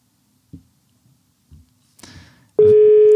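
A few soft clicks and handling noises, then a loud, steady electronic telephone ringback tone starts abruptly and holds on, as heard when waiting for an outgoing call to connect.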